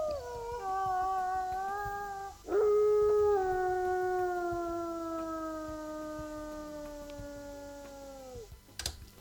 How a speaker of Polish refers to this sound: Nowy alt. Warcząc. Wilk.